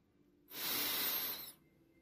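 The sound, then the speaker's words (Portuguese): A single deep, airy inhalation lasting about a second, clear, rising smoothly and then cutting off, with quiet stillness before and after and no talking. “E respirando fundo”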